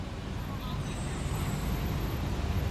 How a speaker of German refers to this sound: Verkehr. Ja. Aber was komisch ist, normalerweise wird die ganze Zeit gehupt. Ja. Ähm, ich kenne keine Stadt, wo, so, wo die so schnell auf der Hupe sind wie in New York City.